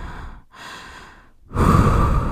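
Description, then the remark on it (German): Deep breathing with no talk, a boy breathing in and out to calm himself when stressed: a long breath out, a slow breath in, then a louder, forceful exhale, each a soft airy rush separated by brief pauses. “Und dann atmet er”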